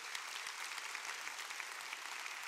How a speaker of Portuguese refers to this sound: Pode aplaudir o Senhor, porque é verdade.